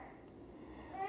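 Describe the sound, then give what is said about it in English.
A young child babbles softly in the background, a brief stretch of wordless, sing-song vocal sounds that rise slightly toward the end. “so you might hear my little guy in the background.”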